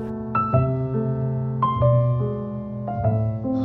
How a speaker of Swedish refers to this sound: tema från eh, filmen som heter Yatara och låter så här